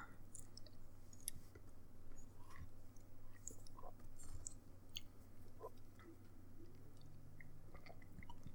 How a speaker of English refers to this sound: Oh wait, I need to take a sip.